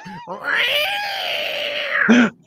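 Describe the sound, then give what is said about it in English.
A human voice imitates a cat's yowl in one long, drawn-out wail that rises, holds steady, then ends with a brief lower grunt. It's loud, with no other sounds. “That's the cat. That's the cat.”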